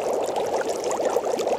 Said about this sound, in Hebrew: זה רעש של שמן מבעבע. אנחנו צריכים למצוא סופגניה או לביבה, משהו שמטוגן בהרבה שמן.